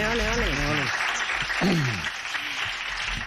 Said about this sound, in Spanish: Bueno, pues eso, un aplauso porque por fin se ha dado cuenta.